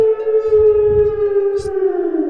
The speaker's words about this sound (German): das sind die äh, Sirenen. Äh, falls mal wieder brennt im Wald.